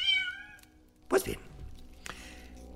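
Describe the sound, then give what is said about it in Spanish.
An impatient cat meows insistently, a drawn-out harmonic cry at the start followed by shorter, sharper meows, with some faint background noise between calls. “¿Qué gato más impaciente?”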